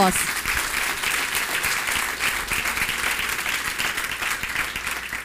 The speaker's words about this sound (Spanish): Dele ese fuerte aplauso ahora sí.